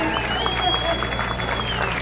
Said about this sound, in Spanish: Aquí está un fuerte aplauso